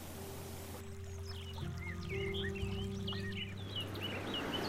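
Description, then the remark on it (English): Steady rushing of a snowmelt creek among trees in sunny weather fills the background, with scattered bird chirps and calls on top and a low continuous hum underneath. “We are out enjoying fine sunshine weather on a beautiful snowmelt creek in the trees.”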